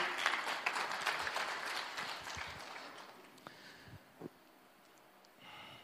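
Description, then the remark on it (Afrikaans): An audience breaks into a burst of dense, crackling applause that gradually thins and dies away after a few seconds, leaving only scattered soft thumps and quiet rustling. “Kan ons laaste klap gee?”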